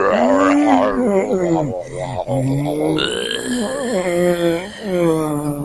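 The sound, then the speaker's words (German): A continuous, guttural zombie-like groaning from a human voice, low and loud, with wavering, sliding pitch and a few brief breaks, filling nearly six seconds. “nein, nicht schon wieder eine Zombie-Attacke.”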